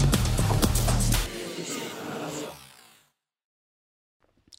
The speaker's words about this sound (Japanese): はいこれね最後リバーブの中に「わーじょ」って「いわーじょ」って入ってるんですけどなんかこうねやっぱ違和感ラジオなんで違和感のある音をガシガシ入れてちょっとかっこよくしてみたいなっていうような感じで 作ってみました